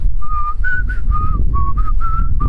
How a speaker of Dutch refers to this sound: Het is hetzelfde als ik jou zou vragen: zou jij bijvoorbeeld eens willen fluiten eh, het derde pianoconcert van Rachmaninoff? En dan begin jij